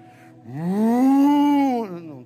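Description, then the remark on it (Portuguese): A single drawn-out bull moo, loud, a low droning bellow that rises, holds steady for over a second, then drops off. No other sounds around it. “ó, agora foi. Um touro.”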